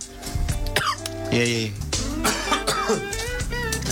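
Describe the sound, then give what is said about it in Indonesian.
A few rough coughs burst out in quick succession, interleaved with someone speaking briefly over and between them. “Batuk gue nih.”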